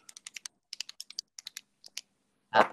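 Rapid, crisp clicks of a pen come in quick irregular bursts, fairly quiet, ending with one louder, duller clack. No one speaks.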